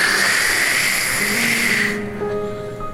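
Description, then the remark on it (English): A voice imitates harsh, crackly static from a broken drive-through talk box speaker, a steady loud hiss for about two seconds that cuts off abruptly, leaving a faint tonal hum. “When you wave them away and you finally get to the, to the talk box, the box doesn't really work that well.”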